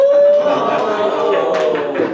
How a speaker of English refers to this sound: They're clapping. They're clapping.